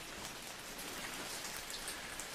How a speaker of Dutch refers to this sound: Maar de volgende morgen stroomde het van de regen. En door het dichte gordijn van regen heen kon je vanuit het raam de bergen en het bos niet eens zien.